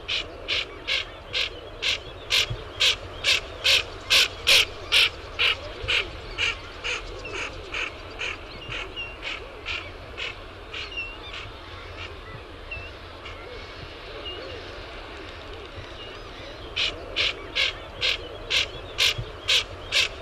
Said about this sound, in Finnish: Kyllä, mutta ei ollut luhtakana, koska se tulee tuohon köpöttävään ääneen tai matkii sitten sitä vastaa sieltä. Niin tämä olikin tukkasotka, mikä oli siinä ruovikon takana